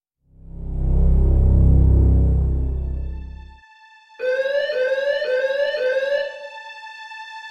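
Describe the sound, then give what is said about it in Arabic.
A deep, loud rumble swells and fades, then an alarm bell rings out sharply in a cafeteria in a quick run of repeating pulses for a couple of seconds, leaving a faint lingering tone. “راح جرس الإنذار يدوي كنا في الكافيتيريا فتصلبنا في الأوضاع التي كنا عليها من كان يرفع الملعقة إلى فمه ومن كان يجرع من كوب العصير”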